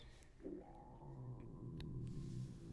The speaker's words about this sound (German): Das war mein Magen.